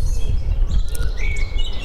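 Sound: songbird singing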